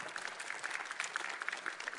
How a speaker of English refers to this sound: Let's give him a, a round of applause